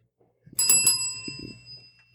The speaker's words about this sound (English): Go ahead and tap that bell for me.